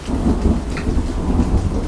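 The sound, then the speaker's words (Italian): Heavy rain pours down on a motor racing weekend in a dense, steady, loud hiss, with a deep rumbling undertone running beneath it the whole time; no voices. “Una domenica bestiale, dopo un sabato lagunare, pioggia, sempre tanta, la materia prima che aiuta gli audaci, i poveri ma belli.”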